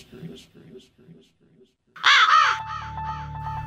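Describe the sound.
Faint talking gives way to two loud, harsh raven caws, followed by a string of quicker, fading echo-like repeats over a steady humming tone.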